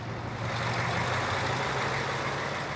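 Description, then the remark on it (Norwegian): A new snowplow truck is tested in Ringerike, Norway, where there is still little snow. Its engine runs steadily, a low droning hum with a strong bass tone under a broad, rushing noise from the plow that stays constant and fairly loud, with no talking. “Det bråker litt av plogen, for på Ringerike er det fremdeles dårlig med snø”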